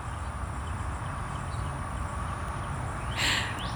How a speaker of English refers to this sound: I'm currently sitting outside a coaching client's office, and if you listen carefully, you can hear traffic and you can hear a bird singing. Listen.